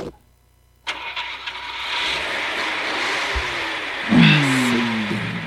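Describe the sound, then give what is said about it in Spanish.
After a brief silence, a car engine cranks and catches, settling into a steady rumbling idle before a single strong rev swells near the end. Fairly loud, with no voices. “no es el bocho.”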